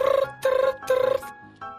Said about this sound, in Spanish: usted pregúnteme, ¿por qué suena tanto tu celular? Ah, ahorita que te estoy abrazando tan fuerte y te tengo tan cerca de mi corazón, ¿Por qué no para de sonar tu teléfono, amor? Eh, es mi alarma.